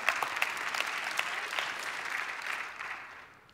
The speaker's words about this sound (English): You can clap right there.